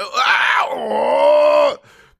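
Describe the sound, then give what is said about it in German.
A single loud, drawn-out cry of pain, voiced by one person reenacting their scream after catching their foot on the foot of a bed. It starts high and strained, drops into a lower groaning wail, then cuts off abruptly. “Ich habe mega laut geschrien, also so”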